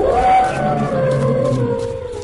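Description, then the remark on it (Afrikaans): An elephant trumpets loudly for about two seconds as it runs forward with dust rising under its feet, a brassy, sustained call with a shrill opening that gradually fades. No voices are present. “trompeter weer hard en die stof staan onder sy voete uit soos hy nader hardloop.”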